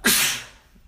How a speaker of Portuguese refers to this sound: Ah, eu vou espirrar. Peraí. Peraí. Tira perto do microfone.